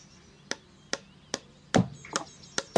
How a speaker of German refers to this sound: Den ganzen Tag ist aus dem Garten geschäftiges Treiben, Hämmern und Rufen zu hören. Abends ist das Baumhaus endlich fertig.